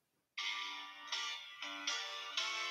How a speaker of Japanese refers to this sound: 最近、それこそモトローラの端末買ったの久々なんで、調べてなかったんで、ちゃんと見たかったんだよね。電話の着信音。